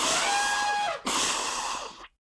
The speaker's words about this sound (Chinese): 大象瘫倒在地上，打喷嚏打个不停。